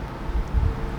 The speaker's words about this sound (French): Excuse-moi, c'est le bruit du vent dans les feuilles.